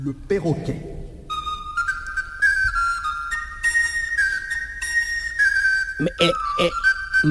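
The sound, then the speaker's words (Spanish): Sustained, wavering whistled tones imitate a mix of bird calls, parakeet, cuckoo, hen and goldfinch. They overlap in a steady chorus, with brief voice-like squawks near the start and end. “En realidad son un periquito, un cuco, una gallina y un jilguero.”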